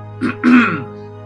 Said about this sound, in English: Your eyes flick over as you hear someone go.